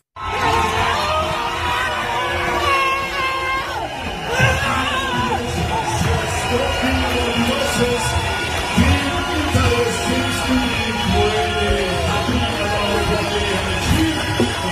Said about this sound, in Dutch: Ik hoor toeterende mensen. Of ja. Oh, haal ik het in mijn hoofd? Het is, nee, zeker niet. Het is 2021. Ja, het jaar dat Italië alles wint wat los en vast zit. En dus heeft Italië weer wat gewonnen.